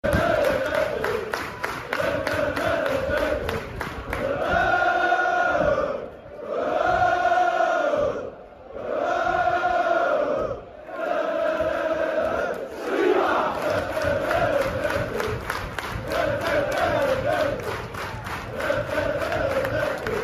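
A large crowd of football fans sings a chant in unison, swelling into loud sustained melodic phrases separated by brief dips, with a constant roar of crowd noise underneath.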